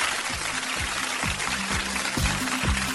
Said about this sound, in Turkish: Alkış.